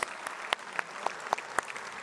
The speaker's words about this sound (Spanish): Feliz Día de los Padres a todos aquellos que son padres. Vamos y le damos un aplauso a todos que son bisabuelos, abuelos, padres o padres espirituales.